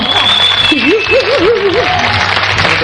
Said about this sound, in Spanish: Vamos a la tribuna. A ver ese aplauso.